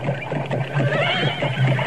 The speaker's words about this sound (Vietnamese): bỗng nghe tiếng gió ngựa dồn dập bốn tên lính mông cổ tay cầm trường đao phi ngựa tới hét to mau lên mau lên